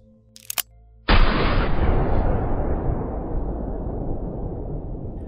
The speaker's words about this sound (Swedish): Vapnet användes sen vid ett rån mot ett postkontor samma år i Mockfjärd i Gagnefs kommun i Dalarna. Och där under rånet så avlossades ett skott